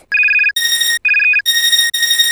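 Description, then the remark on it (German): A loud electronic telephone ringtone trills in back-to-back bursts, alternating between two bright tonal patterns with only tiny gaps, and no voices. “Es klingelte am Telefon, an der Tür und immerzu und überall, immerzu klingelte es.”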